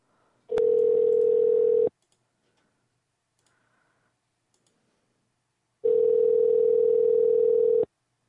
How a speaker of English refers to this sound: Oh God, that ringing in the air, man, with the ringing telephone.